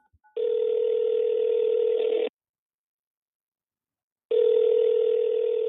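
A few faint clicks of a phone being dialed, then a steady electronic ringing tone sounds in two long, loud bursts separated by about two seconds of silence, with no voices.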